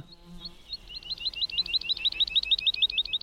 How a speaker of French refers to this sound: Au bord de cette forêt, comme dans toutes les forêts, il y a pas mal de vie. Des oiseaux qui volettent